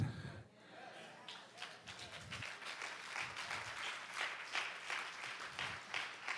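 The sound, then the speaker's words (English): A church audience breaks into steady applause during a sermon, dense overlapping claps sustained for several seconds at moderate loudness, with a little murmuring underneath. “I should have warned you, we shouldn't be clapping right now because the ruts are the ruts we made with bad decisions over and over and over again.”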